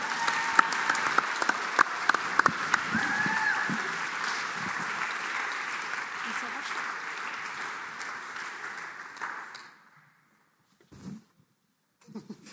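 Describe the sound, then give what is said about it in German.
Sustained applause from an audience, a dense steady patter of clapping lasting about nine seconds before fading out, followed by a couple of brief faint sounds. “Warm Applaus.”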